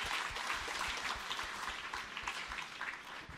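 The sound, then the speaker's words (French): A crowd at a baptism gathering claps steadily for a few seconds, a dense, continuous patter of many hands with no voices over it, applauding family members who came from Guadeloupe. “On va les applaudir.”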